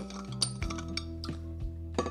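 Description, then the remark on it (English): A spoon stirs a fruit smoothie made with almond milk and apple juice in a glass, giving a series of light, irregular clinks against the rim over a soft, steady background hum. No one speaks. “And then, yeah, I'm just gonna shake it up a little bit, you know, stir it up.”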